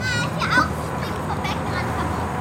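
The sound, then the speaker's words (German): Children playing and shouting at a tiny motel pool on a parking lot beside a highway in the American South, with bright high-pitched calls and chatter rising over a steady low background rumble of traffic. “Wir ziehen Bahnen in einem winzigen Pool.”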